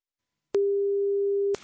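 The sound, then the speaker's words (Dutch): A single steady telephone ringing tone sounds for about one second, a clean mid-pitched electronic beep heard while placing a call, with a brief click at its start and end. “En ik heb haar uh, gemaild met de vraag of ik eh, haar even mocht bellen met deze, met deze kwestie.”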